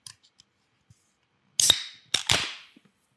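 A beer can cracks open: a sharp metallic pop with a fizzy hiss, quickly followed by a second crack and longer carbonated hiss, with a few faint clicks around it.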